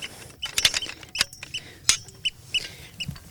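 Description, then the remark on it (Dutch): A 1.20 hand soil auger grinds into topsoil on a first boring to sample only the topsoil, making irregular gritty scrapes and crunches with sharp clicking bursts scattered throughout, fairly quiet and with no voices. “Nou, dit is de eerste boring, dus we hoeven alleen nog maar de bovengrond te boren.”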